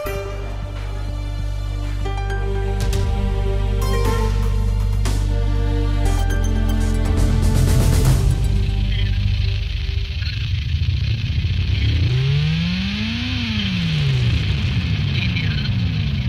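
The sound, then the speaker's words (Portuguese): Loud electronic music with layered sustained tones and sharp accents, later sliding into rising and falling pitch sweeps that sound much like a car engine revving up, no voices. “Parece um carro a acelerar. Mas não é. É a música que embalou a conversa que a Carolina Ferreira teve sobre matemática.”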